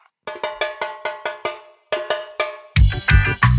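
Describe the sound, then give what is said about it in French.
Music kicks in with a rhythmic run of bright, ringing cowbell-like hits, pausing briefly before a fuller, louder band sound with deep bass joins in at the end. “Musique, maestro.”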